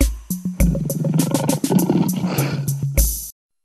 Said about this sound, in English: L is for lion. L, L, L. L is for lion. L, L, L.